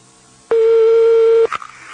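A telephone ringback tone while calling someone about a bathroom installation: one steady, low buzzing beep lasting about a second, loud and alone over faint line hiss, followed by a brief click as it cuts off.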